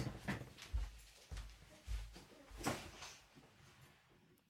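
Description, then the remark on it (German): A door is pushed shut with a muffled thud and a sharp latch click, following a few soft low bumps of movement. The sounds are quiet, with no talking. “Ja, Tür zu machen.”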